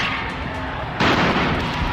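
A tear gas canister, fired by a police officer to break up an unruly downtown demonstration, goes off with a single sudden bang partway through. A harsh, noisy rush follows and lingers over a steady background of rough commotion.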